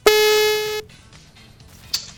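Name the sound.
telephone ringing tone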